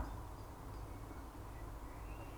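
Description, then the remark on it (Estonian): A steady, low rumble of distant car traffic in a city fills the quiet background, with a few faint, high bird chirps drifting in through a window. “siit akna vahelt voolab sisse linnulaulu ja kaugelt kostab autode müra.”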